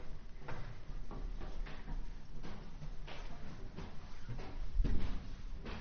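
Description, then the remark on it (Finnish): Footsteps clang steadily up industrial metal stairs to a loft, a series of about eight hollow, resonant thuds in an even climbing rhythm, moderately loud, with no one talking. “nyt tultiin vielä yhdet tämmöiset teolliset portaat, tämmöiset metalliportaat tämmöiset parvelle, missä on myöskin pari ovet.”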